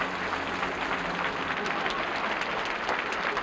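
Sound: crowd applauding and cheering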